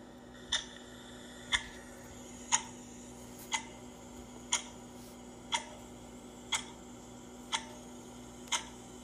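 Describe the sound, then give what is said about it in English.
A clock ticks steadily, one sharp click about every second, nine ticks in a row, fairly quiet over a faint low hum, with no voices. “Let the clock begin.”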